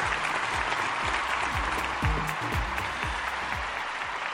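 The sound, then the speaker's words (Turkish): Sustained applause from a sizable crowd, a steady dense wash of clapping filling the whole stretch at a fairly loud, even level with no talking over it. “Kocaman alkışlar”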